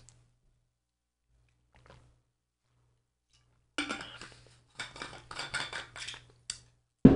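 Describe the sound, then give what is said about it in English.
After a few quiet seconds with a low hum, someone gets a glass of water: a run of clinks, light clatter and splashy rustling bursts, ending in one sharp knock. “I'm going to get some more water.”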